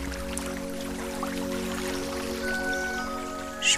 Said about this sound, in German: Hör das Rauschen des Flusses.